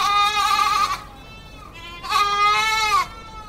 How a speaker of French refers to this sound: Petit jingle. Sympathique. Ouais, c'est une chèvre qui a de l'écho. Ouais, ouais, elle est sympathique, la chèvre.